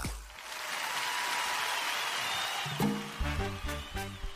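A steady applause sound effect, a dense wash of clapping that holds for a few seconds before rhythmic musical beats with low thumps cut in toward the end. It welcomes Tato Hernández's entrance on the Z93 radio show Nación Z.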